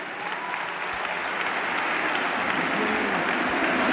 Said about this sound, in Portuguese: E aqui o primeiro aplauso PF, de pé. Nesta também visitação do passado, com Pedro Nuno Santos a relembrar eh, Mário Soares, também Jorge Sampaio, nome que nos deixou recentemente e aqui a motivar também este aplauso, este primeiro grito de pé.